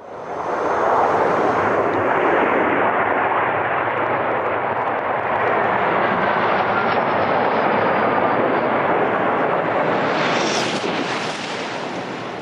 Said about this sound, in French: avec les plus fiers représentants aujourd'hui des trains rapides, avec Cocorico, le TGV, qui a le record de vitesse sur rail, je précise bien sur rail, à 574 km/h,8. 574 J'avais, J'ai jamais vu ce record. 574,8, ça fait ce bruit-là.